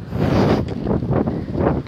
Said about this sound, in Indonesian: aduh angin